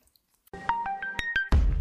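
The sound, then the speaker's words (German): A large old rotary-dial telephone being used to place a call sounds with a steady electronic tone punctuated by a series of sharp clicks, ending in a sudden loud, rough burst as if the receiver is picked up. No one speaks. “Jetzt äh nehmen wir mal das große, große alte Telefon in die Hand mit der Wählscheibe und gucken, wer da rangeht.”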